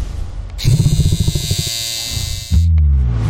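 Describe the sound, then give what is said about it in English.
The Panther Clipper, an electric shaver made by Saracen, buzzes loudly and steadily with a rich, raspy hum, then shifts to a deeper, heavier drone for the last second. No one speaks. “Introducing the Panther Clipper.”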